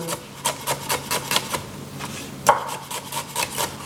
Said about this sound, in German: Ah ja, du schneidest die Zwiebeln. Entweder ganz feine Würfel oder ja. halt jetzt nur Ringe, je nachdem.